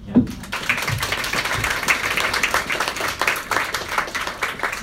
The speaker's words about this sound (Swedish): Tack! Tack så hemskt mycket. En applåd.